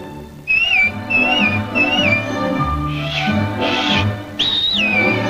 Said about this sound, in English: And anytime you need me, you know, just whistle, like this.